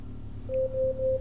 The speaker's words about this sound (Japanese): ちょっとごめん。アレクサ、タイマー止めて。